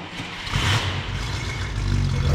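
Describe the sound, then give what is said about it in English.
A classic 1963 Cadillac Coupe de Ville V8 engine rumbles and accelerates, a deep low growl swelling steadily with broad road and wind noise above it, fairly loud with no talking. “We started in Dan's classic Coupe de Ville.”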